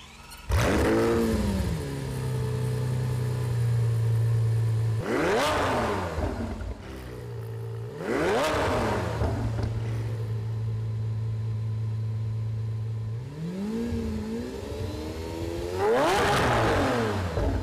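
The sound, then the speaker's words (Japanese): A 2015 Lamborghini Aventador LP700-4's 6.5-liter V12 engine, mounted lengthwise behind the driver's seat, idles loudly, then revs sharply four times, each blip rising to a howling scream before dropping back to a steady rumble. “ドライバーズシート後方に縦置きにされたエンジンは6.5リッター V 型12気筒エンジンランボルギーニアベンタドール LP700-4 のエネルギッシュなサウンドを楽しんでいただきました”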